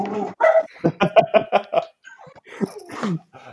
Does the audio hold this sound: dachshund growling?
yes